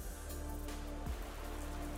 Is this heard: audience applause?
no